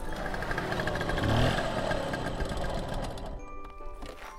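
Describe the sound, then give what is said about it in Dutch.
A small scooter engine buzzes steadily as it rides along, a rattling drone that swells slightly early on and then settles into an even hum. “En als het hoofdgerecht achter de kiezen is, dan pakken ze de scooter om weer te rijden naar haar ouderlijk huis, vlakbij Amsterdam, om de pudding op te halen.”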